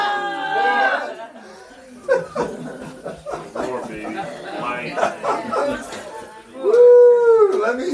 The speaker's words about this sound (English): Got, you guys got a war cry? Does everybody here have a war cry? Come on, let me hear your war cry.